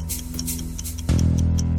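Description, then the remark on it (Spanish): A clock ticks in a steady, even rhythm, several crisp ticks in a row, layered over a low humming musical bed that suddenly grows louder and fuller near the end. “Tic-tac.”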